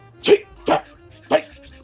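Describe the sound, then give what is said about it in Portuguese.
A person imitates their dog's whimpering cry at the bedroom window during light rain at night: three short, nasal yelping whines in a quick uneven rhythm, moderately loud, with brief quiet gaps between them. “Ela dando aquele chorinho, assim, né?”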